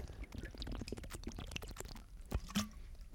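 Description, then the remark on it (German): Someone drinks from a water bottle: a quick run of wet, gurgling clicks and sloshes, then a pause and two sharper plastic pops. Fairly quiet, with no voices. “Das war eine Wasserflasche und keine Bonk.”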